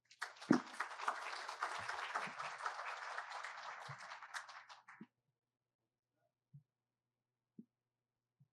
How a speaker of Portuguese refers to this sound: Mais uma vez, muito obrigado pela sua colaboração voluntária aqui, trazendo essas informações importantes e relevantes. Pessoal, uma salva de palmas.